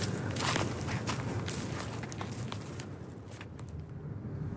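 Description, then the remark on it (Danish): Footsteps crunch steadily along an outdoor path into a forest, each step a soft scuffing over a low rustling background, with no voices present. “Nu går vi ind i skoven for anden gang.”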